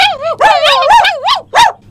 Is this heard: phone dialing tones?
no